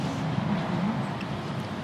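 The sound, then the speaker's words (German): A steady roar of road traffic, low and continuous, with cars speeding past in the background on a road that cuts through a corner of the Neeracher Ried, a large flat moor in Switzerland, and no clear individual pass-by standing out. “Und im Hintergrund hört man natürlich hier die Auto vorbei rasen.”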